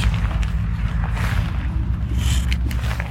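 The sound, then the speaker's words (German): Wind buffets the microphone in a steady, heavy roar, with deep rumbling thumps and gusty surges throughout and no voices. “Danke, du hast meinen Teebeutel gerettet. Vor dem Wind.”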